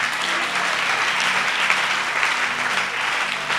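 An audience claps and cheers steadily in acclaim of God, a dense, sustained wash of applause for several seconds, with indistinct shouts mixed into the crowd noise.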